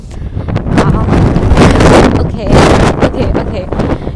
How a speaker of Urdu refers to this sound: بہت تیز ہوا چل رہی ہے تو اتنا زیادہ ڈسٹرب نہ ہو آپ لوگ اور میری آواز سن رہے ہیں